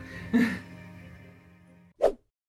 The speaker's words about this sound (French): tu vas bailler longtemps comme ça Désolée, je suis fatiguée. dès que j'ai lu Bridgerton, c'est un effet narcoleptique sur moi, quoi. Elle est encore en train de bailler, j'en reviens pas.